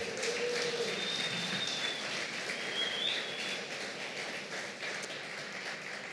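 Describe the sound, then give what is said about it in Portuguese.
An audience applauds for Jesus steadily for several seconds, a dense crackle of many hands clapping at once, with a couple of brief high whistles rising above the clapping. “Dê um aplauso a Jesus.”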